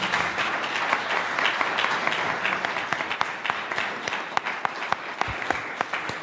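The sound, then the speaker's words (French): Steady, dense applause from an audience, a continuous crackle of many hands clapping at a fairly constant loudness, with a few sharper claps standing out near the end. “Des applaudissements, s'il vous plaît”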